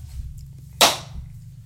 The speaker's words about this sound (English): Just stop recording, and then we'll talk for a second, and then I'll hit you with a clap.